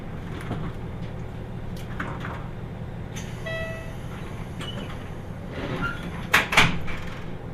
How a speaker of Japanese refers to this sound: 発車します。ドアが閉まります。ご注意ください。